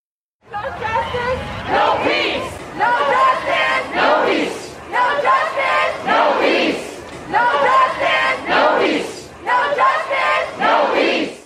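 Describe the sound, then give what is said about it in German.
A large protest crowd chants "No Justice, No Peace" in loud, rhythmic unison, the slogan repeating in steady bursts with shouted voices and crowd noise filling every pause. “Dieses Geräusch, diese Proteste, die sagen No Justice, No Peace, also ohne Gerechtigkeit kein Frieden, gehen einem ja immer wieder unter die Haut, wenn man es hört.”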